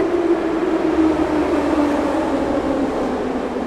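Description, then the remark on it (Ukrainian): A subway train rumbles steadily through a station of the Kharkiv metro, with a continuous loud roar and a droning tone that holds for several seconds and no voices on top. “як ви можете чути, сьогоднішній випуск я записую на виїзді у харківському метро.”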